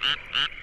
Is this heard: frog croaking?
yes